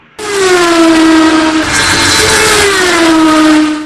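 A loud motorcycle engine roars past at high speed, its whining pitch dropping as it goes by, then continuing to drone steadily with no voices.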